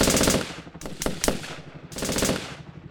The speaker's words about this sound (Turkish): Helikopter makinalı tüfeklerle taranmıştı.